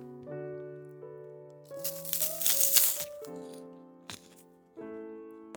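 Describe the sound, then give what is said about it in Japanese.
Crunching and crinkly rustling as another snack, left slightly stale by exposure to air, is eaten, loudest in a burst midway with a brief sharp crunch later, over a steady background of soft sustained musical tones. “あのもう一個食べようカロリーそんなにないんじゃないかな分からんけどまあ美味しいのでオール OK ですね”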